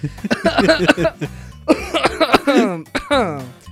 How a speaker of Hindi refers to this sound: अब भाई वो कर रहा गूगल अब मैं मैम क्या अब मैं क्या बोलूँ बीच में मैं खांसने लग गया